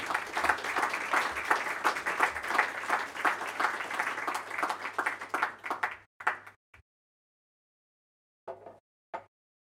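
A crowd applauds with dense, steady clapping for about six seconds, then it breaks off abruptly, leaving a few scattered late claps separated by silence.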